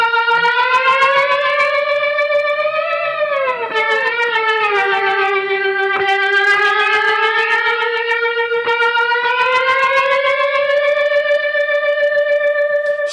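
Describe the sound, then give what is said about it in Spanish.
An electric guitar intro played through a delay effect: loud, sustained ringing notes that bend slowly downward and back up, with faint repeated picking and a smooth, wavering, siren-like wash throughout. “lo ponemos con el delay y veréis como ya, ya, ya el, efecto de la entrada está, está, está completo.”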